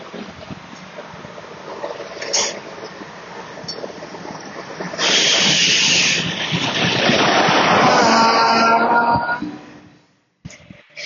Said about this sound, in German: wie man hört, sind wir gerade am Bahnhof in Weiz eingefahren.